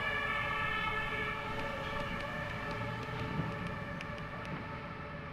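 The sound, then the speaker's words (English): A fire engine siren blares steadily over a deep engine rumble, loud at first and easing off slightly as the vehicle passes. No one speaks. “Here's a fire engine going by.”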